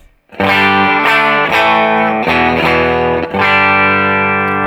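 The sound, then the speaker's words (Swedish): Electric guitar run through a Tallbird and an amp into a Captor X, with a 1x12 Deluxe speaker simulation: a few loud sustained chords strummed one after another with a warm, slightly driven tone and no voices. “Och nu byter jag till en entolva deluxe.”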